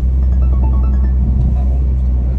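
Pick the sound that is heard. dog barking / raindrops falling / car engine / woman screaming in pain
car engine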